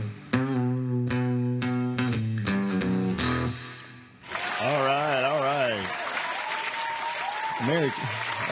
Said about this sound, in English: such a nice round of applause. Such a nice crowd to, to join us on Christmas Day.